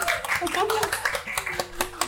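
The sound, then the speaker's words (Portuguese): Applause from an audience welcoming a guest: a quick, irregular run of sharp claps lasting about two seconds, with a voice cheering and calling out alongside it. “Uma salva de palmas para a nossa convidada.”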